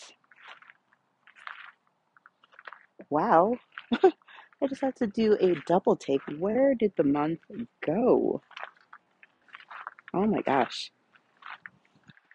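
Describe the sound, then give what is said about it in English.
Soft, irregular crunching crackles in the background as a woman works in a city community garden, scattered through the pauses while she talks and laughs over it. “Well, if you hear crunching in the background, that is because I am in my garden.”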